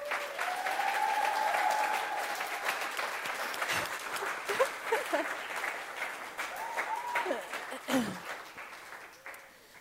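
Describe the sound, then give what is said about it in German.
An audience breaks into sustained applause for the speaker's mother, a dense steady patter of many hands clapping that gradually thins out, with some cheering or whooping voices rising above it. “Und ich bitte euch um einen herzlichen Applaus für meine Mom.”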